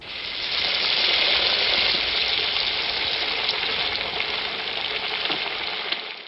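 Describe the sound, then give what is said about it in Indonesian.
A steady sizzle of mie goreng (fried noodles) and a half-cooked sunny-side-up egg frying in a hot pan, with a constant crackling hiss and faint pops from start to finish and no talking. “Nih, A, mie goreng telur ceplok setengah mateng spesial dari saya.”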